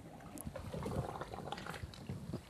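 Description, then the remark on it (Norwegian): Busy, irregular splashing and sloshing at the water surface as a diver's yellow swim fins churn just below it in very shallow water while the diver works head-down near the bottom, with bubbly gurgles and trickles throughout, steady. “Og det er så grunt her at de gule svømmeføttene de er nesten helt oppe i vann, uh, vannspeilet her.”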